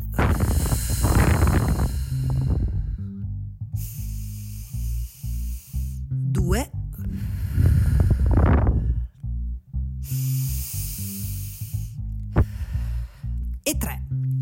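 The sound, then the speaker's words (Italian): Slow, deliberate conscious breathing as a mindfulness exercise: about three long cycles of airy inhales and exhales, each a loud, breathy hiss lasting a couple of seconds, separated by short pauses, with no talking. “In pratica basterebbe iniziare la giornata o comunque quando sentite questo podcast potete fare tre respiri consapevoli. Se volete ci proviamo in questo momento così che sperimentiamo per la prima volta il qui e ora.”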